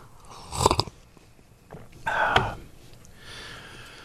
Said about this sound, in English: I'm going to take another um, little sip of more milk here.